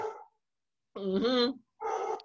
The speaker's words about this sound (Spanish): ¿Cómo? Ah, el perrito. No, el perrito ladrando.